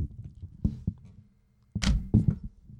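Thuds of a rubber 'sold' stamp: two soft, dull taps, then a pause and a pair of heavier, louder thumps close together, each with a short muffled knock and no voices.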